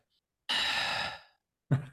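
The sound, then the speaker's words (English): A voice imitates the slow, drowsy breathing of someone starting to drift off to sleep while watching a movie: one long, airy exhale fading out over about a second, followed by the start of another breathy sigh, fairly quiet with no talking. “I only noticed because like I'm sitting next to you, and you you usually know when somebody is maybe starting to drift because then the breathing's like.”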